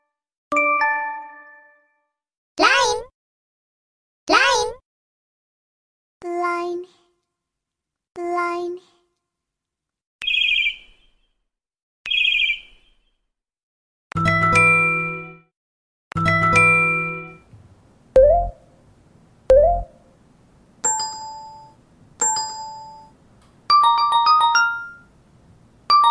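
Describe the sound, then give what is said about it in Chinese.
A run of LINE messaging app notification tones from a mobile phone plays one after another with short gaps: bright dings, paired two-note chimes and quick tinkling jingles at varied pitches, each loud and clear with no talking over them. “光是 Line 的通知就有好多好多铃声啊！”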